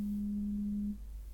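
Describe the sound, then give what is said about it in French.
A mobile phone vibrates with an incoming call, one steady, low buzz lasting about a second before cutting off, clear against a quiet background with no talking. “C'était mon téléphone.”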